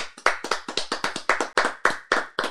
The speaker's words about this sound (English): So without further ado, I just wanna give you a round of applause because you deserve it, man.